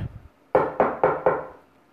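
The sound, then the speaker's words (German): Four firm, evenly spaced knocks on a wooden door, each a loud, resonant thud ringing briefly before the next, following a soft rustle at the start. “Hm, vielleicht muss ich etwas lauter klopfen, überlegt der kleine Igel und klopft kräftiger.”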